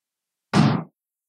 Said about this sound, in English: Wait for the door to close. Close the door.